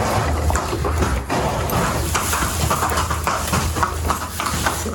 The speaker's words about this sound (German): Wie ist er so? Immer. Ist ein liebes Pferd, er ist ganz ruhig, ne?